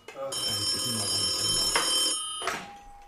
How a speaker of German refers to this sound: Hä, warum klingelt jetzt das Telefon? Kann eigentlich nur Tim Wiese sein.